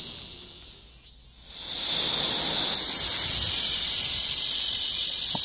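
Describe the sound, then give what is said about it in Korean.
A blackish cicada (malmaemi), recorded outdoors, gives a loud, continuous high-pitched buzzing drone with no resting cycle. It dips briefly near the start, then swells and holds steady and intense. No talking. “그러면 이번엔 말매미 소리요.”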